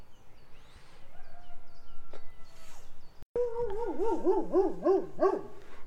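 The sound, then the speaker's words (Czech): A dog in Nezdice howls loudly in a long, wavering cry that rises and falls in pitch several times, after a few quieter, faint sounds at the start. “Tak, jsme u dalšího psa.”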